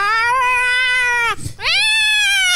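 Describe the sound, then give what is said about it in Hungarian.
A voice imitates a cat in heat with two loud, drawn-out yowls, separated by a short breath. The second wail rises sharply at its start before holding steady. “Ah, ez egy bagzó macska.”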